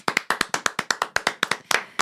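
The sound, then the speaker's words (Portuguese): Rapid hand clapping celebrating the premiere of a concert tour, about seventeen sharp, crisp claps in two seconds at a quick, fairly steady pace, moderately loud with no voices. “Então, palmas, né? Palmas.”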